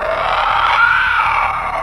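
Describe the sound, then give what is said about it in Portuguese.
A harsh, guttural growl from a creature dragging itself toward a door, heard from the other side of the door, rasps on without a break for about two seconds, loud and rough, with a strained, roaring edge and no speech over it. “Então, você consegue ouvir claramente, do lado de fora da porta, alguma coisa se arrastando na direção da porta. E, e soltando um grunhido gutural.”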